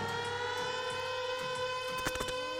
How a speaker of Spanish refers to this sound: Suena la alarma, que suena la alarma.